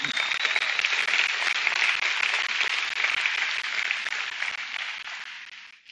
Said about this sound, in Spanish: Si así es, denme un aplauso, por favor.